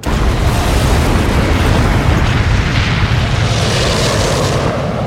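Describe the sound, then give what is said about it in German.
A rocket engine roars through a launch, a loud, continuous, rumbling blast heavy in the low end that holds steady for several seconds without easing, with no voices. “Three, two, one, zero. Ignition.”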